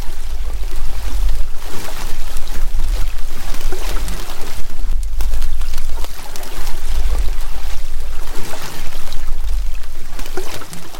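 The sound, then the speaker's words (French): Dense underwater crackling recorded in the marine environment, from a source still unknown: countless tiny snapping impulses fizzing continuously like oil frying in a pan, steady and fairly loud throughout, over a low rumbling throb. “on entend plein de sons différents, hein, qu'on appelle un peu de la friture, euh, des petites impulsions.”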